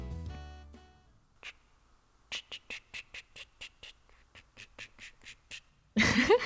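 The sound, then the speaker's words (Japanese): A voice mimics an oriental turtle dove's call in a low tone as an animal impression, two rhythmic runs of short, evenly spaced hoots, fairly quiet, followed by a sudden loud burst of noise at the end. “ハラミがうまそうだと思うのはキジバトのものまねですということで鳩ですか聞きますよ”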